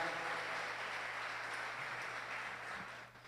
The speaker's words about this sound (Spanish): Dele ese fuerte aplauso a Dios en esta mañana.